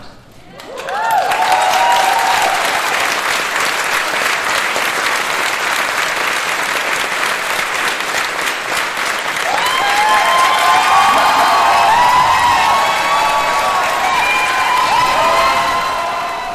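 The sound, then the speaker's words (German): A large convention panel audience applauds and cheers steadily for about sixteen seconds as Wilson Cruz's friends, the rest of the Discovery crew, come onto the stage; dense clapping mixed with high excited shouts and whoops that swell louder toward the end, with no speech over it. “bisher in dem Jubel jetzt nicht mitbekommen habt, die Freunde von den Wilson Cruz hier, sprich, die, vielleicht könnt ihr es euch auch schon denken, war der Rest der Discovery Crew, die dann einfach mal auf die Bühne gekommen ist.”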